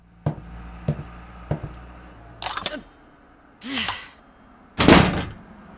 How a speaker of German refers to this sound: die Tür klemmt. Heben und drücken gleichzeitig, Mami.